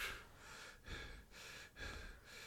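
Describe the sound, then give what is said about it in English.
A voice imitates heavy, labored breathing: three or four rough breaths in a steady in-and-out rhythm, loud and airy, with no words spoken. “Breathing and breathing, fucking like laboring breaths.”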